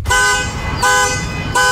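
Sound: car alarm honking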